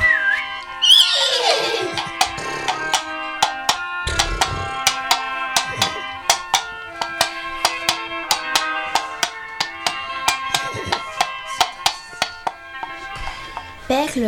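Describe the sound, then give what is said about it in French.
A black and white horse lets out a loud whinny near the start, followed by steady rhythmic clip-clop beats as it is ridden toward Lessines, over a sustained musical backdrop, with another short whinny near the end. “Ni une ni deux, elle monte sur son cheval noir et blanc éclair en direction de Lessine de cette nouvelle aventure.”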